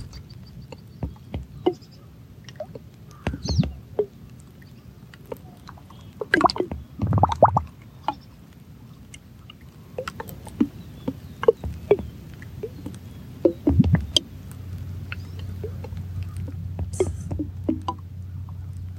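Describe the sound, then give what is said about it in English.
Irregular drips and soft splashes of water, with a low steady trickle running underneath; quiet, with occasional sharper plinks and a brief gush midway. “Remembering all the variations of water sounds.”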